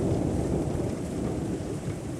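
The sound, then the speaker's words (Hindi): Heavy rain pours down in a dense, steady roar with a deep rumbling low end, constant and unbroken throughout, with no voices, heard from inside an empty clinic. “इंतज़ार करते करते काफ़ी देर हो गई थी लेकिन बारिश ऐसे हो रही थी मानो थमने का नाम ही नहीं ले रही”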